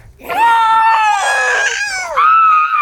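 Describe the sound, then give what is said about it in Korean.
A loud, shrill screech of a Tapejara pterosaur hunting for prey and flying down from the sky: a piercing wailing cry that bends in pitch, breaks off briefly, then returns in a second sustained shriek, with no talking. “얘네들 타페아라 소리.”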